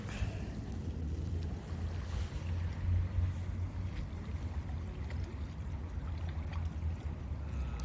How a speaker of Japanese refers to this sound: あ、波の音聞こえます波の音聞こえますね。ちょっと波、あのー、まあ、入り江なんでね、波はないんですけども、ちょっと波打ってるので、音は聞こえてます。